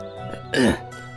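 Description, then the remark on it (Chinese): An old man behind a shop counter clears his throat once before speaking: a short, gruff, raspy rasp lasting about a quarter second, standing out clearly against an otherwise quiet, faintly humming background. “同时把眼镜摘下来，这才站起身来，清清嗓子说道”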